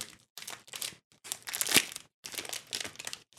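The wrapper of a Feines Bakery crispy snack bar from Hofer crinkles and rustles in several bursts as it is opened to be tasted, with brief pauses between the crackly handling sounds and one sharper tearing crackle midway.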